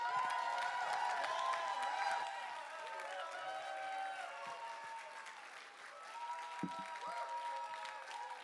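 An audience applauds steadily for several seconds, a dense, continuous clapping that eases slightly partway through, with scattered cheers and whoops mixed into the crowd noise.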